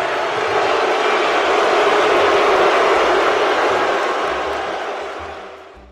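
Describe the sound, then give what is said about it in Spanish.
A loud booing sound effect: a dense, sustained crowd roar holds steady for about five seconds, then fades away in the final second. No one speaks over it. “Perdón, cabrón, puso un abucheo bien grande que no se escucha nada de lo que dijiste.”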